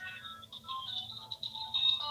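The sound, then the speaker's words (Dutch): A prepaid disposable mobile phone, used as a work phone, rings with a bright, warbling electronic melody of steady high tones, continuous, over a low background hum, with no one talking. “Hé, hey, hey, je hebt eh, nog een telefoon. Is mijn, mijn, de prepaid wegwerptelefoon.”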